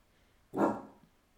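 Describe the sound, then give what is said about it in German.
A single deep, gruff bark from the household's bulldog, sharp at the start and trailing off, heard on its own against a quiet background. “Ihr hört, ihr hört die hauseigene Bulldogge wie sie laut gibt.”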